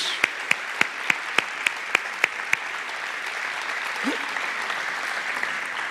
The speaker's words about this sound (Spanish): Y dale otro aplauso a Jesús.